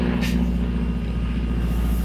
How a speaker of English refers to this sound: So also, we're uh, we're recording outside, so you may hear various noises. Yeah, like the airplane.